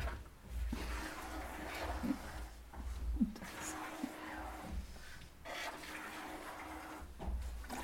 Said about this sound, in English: it's good to get the milk frothing in the bucket, isn't it?